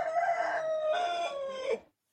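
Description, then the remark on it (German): A person imitates a rooster crowing, one loud, sustained cock-a-doodle-doo call lasting nearly two seconds with a rising then falling voice that cuts off sharply, heard on its own. “Genau, oder du krähst wie ein Hahn.”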